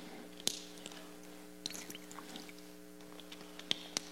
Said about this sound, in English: Finally, the third thing take a drink of water before I say this.